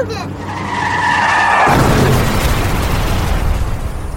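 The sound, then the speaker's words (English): Tires screech loudly for over a second, then a heavy crash hits, followed by a sustained roar of crunching metal and debris that slowly fades. “Car crashes are a leading killer of children 1 to 13.”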